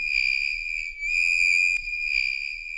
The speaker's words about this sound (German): Und auf Platz 3 von dem schlimmsten Geräusche-Siegertreppchen ist das hier. Das ist Kreide, die über eine Tafel kratzt.